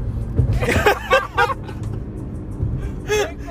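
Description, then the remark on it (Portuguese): A truck about to pull in rumbles in road traffic, a steady low engine drone filling the background while brief bursts of chuckling voices rise over it. “esse caminhão vai entrar aqui.”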